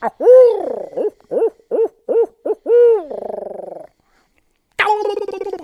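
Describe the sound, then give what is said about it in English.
A loud owl locator call, used in the morning to locate turkeys: a rhythmic run of barred-owl-style hoots rolling into a gargling trill, a brief pause, then one more sharp hoot cutting in. “So you know, I try to stay about 150 yards out and uh, do some locating with owl calls.”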